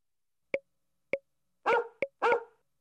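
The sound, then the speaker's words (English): A dog barks five times in an uneven rhythm: two short, sharp yaps spaced apart, then a fuller bark, another quick yap, and a final fuller bark, clear with no talking. “D is for dog.”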